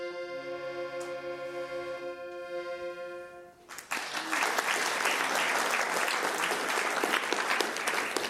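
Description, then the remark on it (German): A sustained piano chord rings and fades, then an audience at a concert evening in a Gymnasium (secondary school) bursts into loud, dense applause that continues steadily to the end. “Jetzt kommt das große Dankeschön des Publikums”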